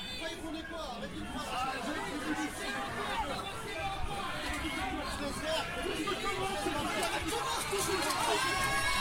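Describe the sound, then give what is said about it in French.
A large, dense crowd shouts in protest as four police officers arrest a young man against a shop's grille, many voices overlapping in agitated shouting and babble at a steady, fairly loud level with no pauses. “Comme vous l'entendez, c'est très violent, il y a beaucoup de cris de protestation, énormément de monde.”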